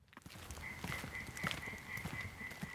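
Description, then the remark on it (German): A European tree frog croaks for courtship in the Murnauer Moos moor at sunset, in steady, rhythmic bursts, while a thin, continuous high-pitched trill runs underneath the whole time. No voices are present. “Und der Laubfrosch quakt zur Brautschau.”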